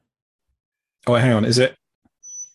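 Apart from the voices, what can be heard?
chair squeaking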